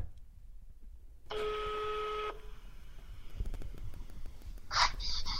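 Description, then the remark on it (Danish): A phone line gives one steady ringback tone lasting about a second as a call is placed to a musician, followed by faint line hiss and a short rustling burst near the end. No one speaks. “Så nu prøver jeg lige at ringe til ham og høre, hvad han siger.”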